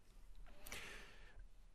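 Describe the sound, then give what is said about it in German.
A dog lying down snores softly, one faint breathy rasp swelling and fading over about a second against a quiet background, with no one speaking. “Und wenn man genau, wenn ihr genau hinhört, hört ihr sie schnarchen.”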